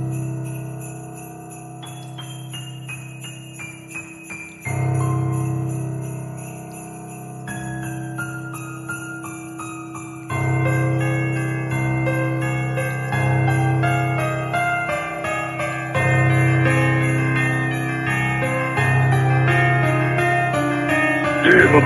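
Festive, wintry instrumental music led by bright, chiming bell tones, with a steady low pulse beneath; it builds in layers, growing fuller and louder section by section. No one speaks.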